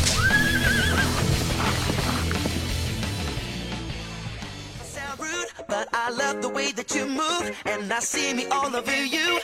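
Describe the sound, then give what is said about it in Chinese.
A donkey brays loudly in a long, rhythmic run of repeated harsh, wheezing calls that rise and fall in pitch, following a dense, noisy opening stretch. No one speaks. “奔跑吧，我的无敌小毛驴！”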